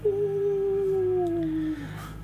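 A single long wolf howl holds a steady, mournful pitch for nearly two seconds, then dips and fades, standing alone over a low background rumble.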